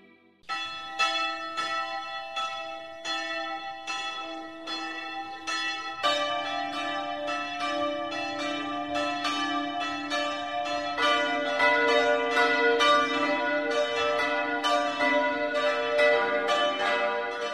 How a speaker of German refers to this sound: präsentiert das sonntägliche 12 Uhr läuten